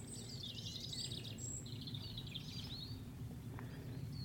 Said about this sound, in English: That willow warbler,